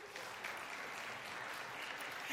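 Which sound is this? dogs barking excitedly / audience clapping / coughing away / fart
audience clapping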